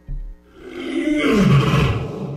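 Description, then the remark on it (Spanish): A deep, rumbling lion roar swells and holds loud, with a gravelly growl sliding downward in pitch, following a brief low thump at the start. “El rey ha despertado. El rugido se escucha en fundidora.”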